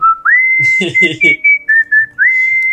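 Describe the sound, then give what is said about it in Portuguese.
Loud, piercing bird-like whistling: a sustained high note with quick upward slides, broken into short chirping phrases, with a brief burst of voice sounding midway through; the 'passarinho' (little bird) whistle linked to São Paulo's games. “que narram os jogos do São Paulo, que estão dando uma puta moral pra gente com o passarinho, né?”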